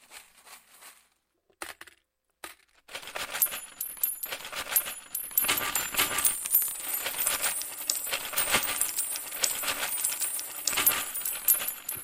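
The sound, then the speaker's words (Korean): A few scattered clinks, then a long, dense cascade of coins pouring out of a piggy bank cut open at the belly, jingling nonstop, bright metallic chimes ringing out over a steady clattering rush, fairly loud. “돼지저금통 배 갈라서 동전 와르르 떨어질 때 아주 부자 된 것 같고 그랬데 말이죠. 저금통의 동전 소리.”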